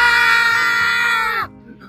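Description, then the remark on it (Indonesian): A loud, sustained scream from a person holds steady for about a second and a half, then breaks off abruptly, leaving near silence. “Waktunya berteriak.”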